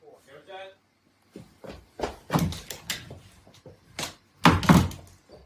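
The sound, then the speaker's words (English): Someone bumps into and tries to push through a door with a "pull" sign, producing a series of loud thuds and rattling bangs in an irregular burst, with a short voice-like sound just before. “Yes, the sign says "pull" for a reason.”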